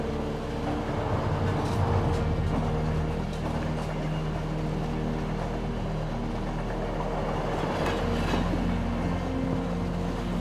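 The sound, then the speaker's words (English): A steady rumble of a train carriage rolling along the rails as the engine picks up and the carriage vibrates, with low droning hum and faint rhythmic rattles and clicks, continuous throughout with no voices. “As the engine picks up, and the carriage vibrates. The train moves on.”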